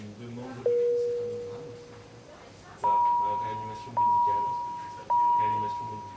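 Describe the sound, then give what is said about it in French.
A patient monitor's critical alarm: one sustained lower tone, then three loud, higher-pitched tones that repeat roughly every second, each sharp onset ringing out and fading, over faint background murmur. “Et ça, là, c'est l'alarme dite critique.”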